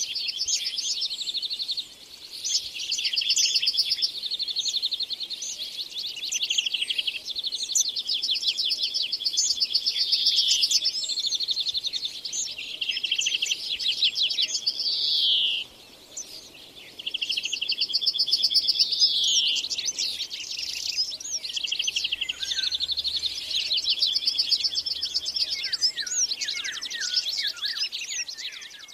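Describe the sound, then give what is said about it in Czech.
A dense dawn chorus in a deciduous forest in southern Moravia, recorded in 2010: chaffinches, blackcaps, starlings, yellowhammer, orioles, hawfinch and collared flycatcher singing and chirping at once, overlapping trills and whistles filling the air continuously, with no talking. “Druhá zvuková rekonstrukce, která právě doznívá, zachycuje raní ptačí koncert z listnatého lesa na jihu Moravy v roce 2010.”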